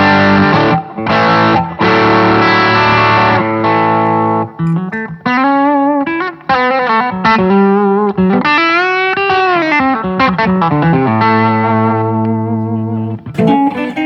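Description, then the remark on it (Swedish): Electric guitar playing alone through a small orange One Control Marigold Orange Overdrive pedal: thick, gritty sustained chords followed by bending, vibrato-laden lead notes, loud and steady throughout with a slightly saturated, crunchy edge. “Eh, Marigold Orange Overdrive från Eh, den- eh, One Control. Den här lilla orangea som vi ser.”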